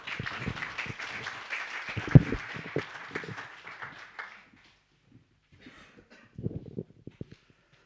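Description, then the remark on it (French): An audience applauds to welcome a speaker, a dense patter of many hands clapping that gradually thins and fades out, followed by a few scattered claps and light shuffling noises. “Voilà, c'est toujours un petit peu euh, particulier d'être applaudi.”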